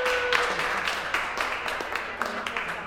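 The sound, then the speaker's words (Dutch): An audience claps in a steady, dense patter of many hands, with brief louder spikes scattered through. Faint voices murmur beneath the applause. “Applaus voor de piraat. Applaus voor de navigator. Applaus.”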